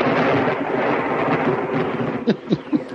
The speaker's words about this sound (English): See, anytime you can have thunder and lightning effects uh, wrapped in, it uh, it's a it really adds to it oh, it's great.